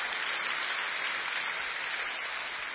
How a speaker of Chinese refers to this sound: 再给上帝一个掌声吧，哈利路亚！